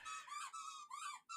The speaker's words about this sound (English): So, we, we have two chocolate mini schnauzers, and you're hearing Moby in the background probably squeaking his one toy.